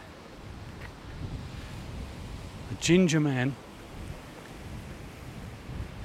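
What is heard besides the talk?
roaring sea waves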